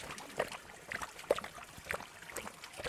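Spring water trickles steadily from a rock mouth into a basin at the grotto spring of Saint Columba in Andrevilliers in the Jura, a soft continuous patter broken by small droplet splashes, fairly quiet, with no voices.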